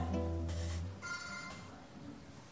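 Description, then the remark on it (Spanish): A mobile phone's electronic ringtone plays a short tonal melody with bright harmonic notes, steady for a couple of seconds, with no one talking over it. “Apagad los móviles, por favor.”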